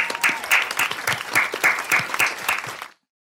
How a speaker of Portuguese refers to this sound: É, eu quero parabéns de reconhecimento a quem ouviu ou assistiu 100 episódios. Uma salva de palmas.